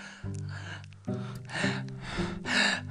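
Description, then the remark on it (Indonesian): A person imitates the breathless panting of someone overweight and short of breath, voicing several heavy, gasping breaths in an uneven rhythm, fairly loud, with no words spoken. “memang sesak kalau kita gemuk itu rada sesak kayak aduh napas tuh kayak ngos-ngosan”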